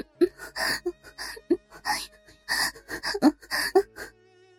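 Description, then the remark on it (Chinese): Broken, uneven panting, about a dozen short breathy gasps and exhales in irregular rhythm, some catching into faint voiced whimpers, moderately loud with no speech. “我低语着，声音几乎听不见，只听得到断断续续的喘息声。”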